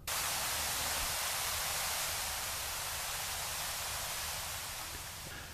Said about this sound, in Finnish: Tämä alku on periaatteessa täysin pelkkää ö, akustista kohinaa, ö, koska esimerkiksi täällä tunneleissa, niin, niin siellä on äärettömän hiljaista. Ne on keskimäärin 3-40 metrin syvyydessä maan sisällä.